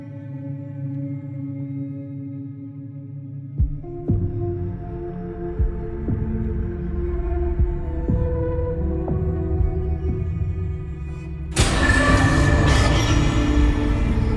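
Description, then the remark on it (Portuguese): Soundtrack music from the video game Carrion opens on a low, sustained droning chord; soft rhythmic hits join after a few seconds, and near the end it abruptly surges into a loud, bright, dense swell. No voices. “A gente já chegou a falar do Carrion no DLC 83, que é o Detonando Agora 36 do Gamer Como a Gente, e vou falar um pouco mais da trilha depois que a gente escutar, vamos ver. Solta o som, DJ!”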